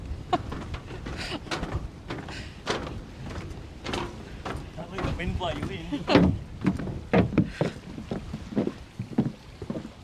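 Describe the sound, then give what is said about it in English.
Strong, gusty wind buffets the microphone on a pontoon by the water in Warrnambool, with rumbling low gusts and repeated knocks and slaps, as of a floating pontoon or boats, and faint voices in the background. “So, for today's podcast, we are down on a very windy pontoon in Warrnambool, windy Warrnambool”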